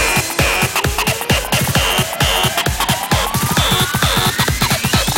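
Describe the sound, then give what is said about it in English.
Loud, heavily distorted electronic music pounds along with a fast, steady beat, gritty saturated layers, and a rising synth sweep, with no voices. “I said more distortion.”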